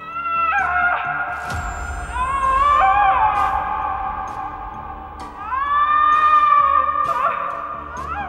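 Loud, drawn-out shrieks of agony from a witch, as a thrown locket touches her body, rise and waver in pitch, coming in two long anguished bouts over a low rumbling background, with no talking.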